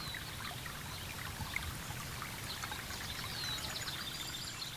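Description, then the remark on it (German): Steady, continuous trickling water pouring into a stone basin and flowing on to a pond, with a soft bubbling texture and faint high chirps in the background; no one speaks. “Das Wasser plätschert beständig in das Steinbecken und bahnt sich seinen Weg bis zum Teich.”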